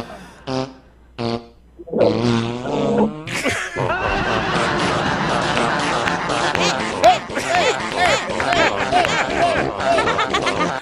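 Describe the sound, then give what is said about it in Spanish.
A rapid, sputtering barrage of farts, a few short blasts at first, then a dense, continuous run of overlapping raspy bursts, loud, with some chattering in the mix. “Cuando viven como ocho en un apartamento sencillo y le agarra una balacera de pedos y a todos.”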